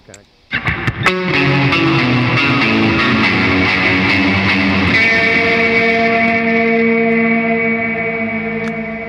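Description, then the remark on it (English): A sustained electric guitar riff played through a mild overdrive pedal, light gritty overdrive that stays fairly clean rather than distorted, chords ringing out loud with a touch of echo, playing steadily alone for several seconds before slowly fading. “Yeah, that sunset's great. Yeah, yeah, it just adds a little bit extra onto the deco because I still want it to be quite clean, so it's not a distortion.”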